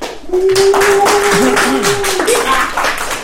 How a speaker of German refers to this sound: Bisschen Applaus bitte. Kommt, Leute.